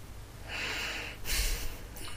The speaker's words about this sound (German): Sie atmet.